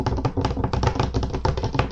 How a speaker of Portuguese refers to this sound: eu tenho um amigo, mano, que, tipo, jogar com ele é engraçado porque ele quase destrói o teclado quando aparece inimigo. Ele começa. Tá, tá, tá